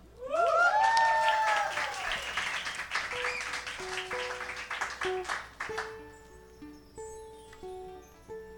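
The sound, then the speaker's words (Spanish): A live audience at the Sonidos Independientes live show applauds loudly for about five seconds, with rising whistles at the start, then the clapping thins out as sustained musical notes begin to play. “Un fuerte aplauso.”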